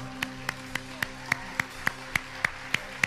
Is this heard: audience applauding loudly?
yes